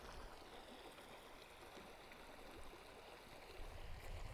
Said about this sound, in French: Et voilà, on a pu, faire une petite douche avec euh, notre poche à eau en l'accrochant au toit de la voiture. C'est assez pratique. Enfin, douche euh, entre guillemets.